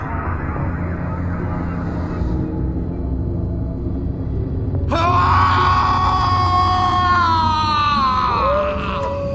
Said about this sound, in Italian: Ehi, hey Carson, hai sentito anche tu? Diavoli dell'inferno, Tex. Era un grido da far accapponare la pelle. Viene dalla capanna di nuvola rossa.